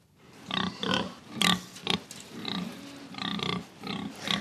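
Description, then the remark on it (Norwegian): A pig grunts repeatedly, a series of short, rough snorts and grunts in an uneven rhythm, fairly loud with no talking. “Hva grisen synes om å nærmest bli gitt bort av de store butikkjedene, det vet ikke vi.”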